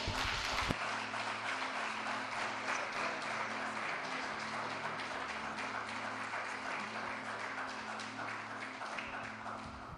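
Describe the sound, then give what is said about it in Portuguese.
A church audience applauds loudly and steadily for about ten seconds to welcome a preacher, a dense wash of many hands clapping at once that stays strong from start to finish. “Vamos receber o servo do Senhor aplaudindo a Jesus bem forte.”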